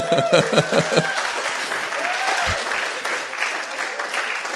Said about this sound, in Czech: nevím, proč se mi za to v církvi tleská teda.